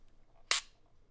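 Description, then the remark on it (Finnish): A single crisp camera shutter click as the shutter button is released, a sharp, brief bright snap that stands alone against a quiet background with no talking. “Nyt on suljin alhaalla, sä päästät napi.”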